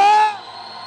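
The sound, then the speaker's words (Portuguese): An audience lets out a loud, high-pitched burst of joyful shouting in praise of God, a dense wall of voices that drops off quickly after a moment and leaves a fainter sustained roar. “Então, se você pode ser extravagante aí hoje, dê o maior grito que você puder aí, de brado de júbilo.”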